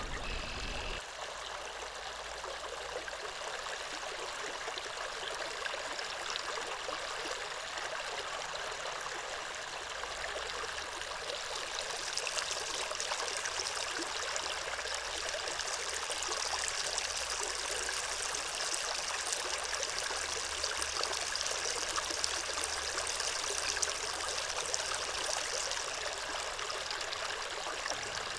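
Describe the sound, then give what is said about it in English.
A small stream swollen by snowmelt, a few hundred feet beyond a wetland, flows steadily and clear, recorded with a parabolic mic pointed at the water's surface; bright bubbling and trickling water sounds fill the scene continuously, with no voices. “A few hundred feet beyond the wetland is a small stream that, because of the snowmelt, was flowing pretty nicely.”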